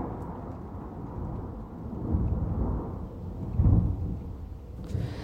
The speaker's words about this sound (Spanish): escuchaste ese trueno, se está cayendo el cielo.